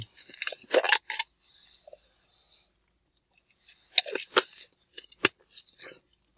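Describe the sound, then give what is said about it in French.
A small sip of a drink: quick wet slurping and clicking mouth sounds in two short bursts separated by a quiet pause, with no talking. “En tout cas, on finir par, euh, par, par faire une petite gorgée.”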